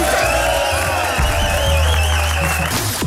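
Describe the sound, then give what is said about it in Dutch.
A loud, steady wash of crowd applause and cheering with whoops and high whistle-like tones running through it for about three seconds, and no clear talking over it. “Dames en heren, mag ik een applaus voor de”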